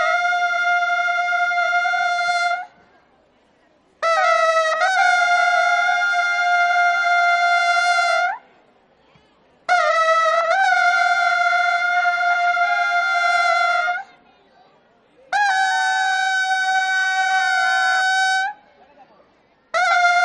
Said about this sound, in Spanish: Pues estamos precisamente escuchando de fondo dicha marcha. Nos detenemos en la procesión del lunes santo, la de la Cofradía del Perdón. Este es su sonido.